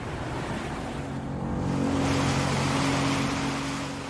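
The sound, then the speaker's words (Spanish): A steady rushing wash of ocean water, loud, with a low droning hum like a boat engine running beneath it and no voices, as a boat heads out into the open waters of the Atlantic. “Los hermanos se prepararon y se dirigieron a las aguas abiertas del Atlántico.”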